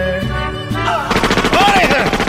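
A sustained tone gives way to a loud, rapid burst of machine gun fire, the close rattling shots continuing to the end with a brief whistling whine rising and falling through them.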